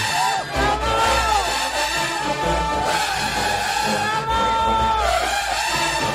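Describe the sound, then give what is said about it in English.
A marching band's clarinets play sustained, bright melodic lines, loud and continuous throughout, with a dense wash of other band instruments and crowd noise around them. “I hear the clarinets.”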